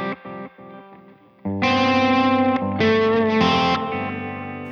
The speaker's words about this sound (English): But let's say I like this slap sound or this tape delay sound.